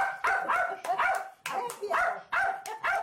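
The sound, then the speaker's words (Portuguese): A dog barks repeatedly, six or seven sharp barks in quick, slightly uneven succession, loud and clear with no other sounds around them. It is one of the two pet dogs, a pinscher and a chihuahua, of the late writer Nélida Pinhon. “a escritora Nérida Pinhon, que morreu no último sábado, deixou os direitos autorais das obras e quatro apartamentos de luxo no Rio de Janeiro para dois cães de estimação.”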